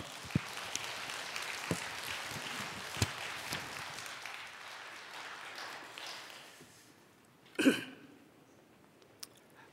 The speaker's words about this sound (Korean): 사랑과 축복의 박수로 예, 맞이하시겠습니다.